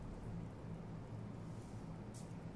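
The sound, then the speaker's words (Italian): A single quick hiss of a perfume atomizer near the end, a short airy spritz of a small amount of perfume, heard over a steady low rumbling background. “No, lo spruzzo io, poco, poco che posso morire se no.”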